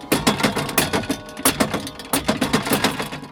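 Wooden carillon levers are pressed in quick succession, producing close, busy mechanical clacks and thumps in an uneven, playing rhythm, with no voices.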